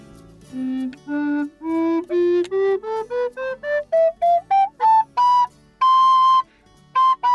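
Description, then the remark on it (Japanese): A tenor recorder, roughly twice the size of a soprano recorder and fitted with two keys, climbs a slow ascending scale, about sixteen separate breathy, flute-like notes rising steadily in pitch, ending on a long held tone and two short repeats, with no voices. “でこれはキーもね2個だけついてる左手の小指の一番下が届かないんで、うん、キーキー押さえる用のそうですねうまく出るかなテナーリコーダーねちょっと難しいんですけど。”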